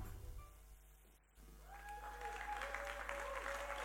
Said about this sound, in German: lass uns Dan einen riesigen Applaus geben und wirklich ihn herzlich willkommen heißen auf unserer Bühne